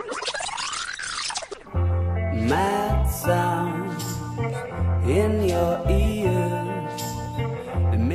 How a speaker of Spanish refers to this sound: Ya sé, falta la pandereta. Que entre nomás.